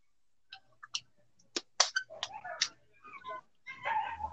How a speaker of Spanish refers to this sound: Sí, ahora, el perro se empezó a ladrar.